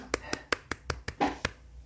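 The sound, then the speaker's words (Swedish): Brief, small applause: about eight light, crisp hand claps in a quick, fairly steady rhythm, lasting under two seconds before stopping. “Liten applåd.”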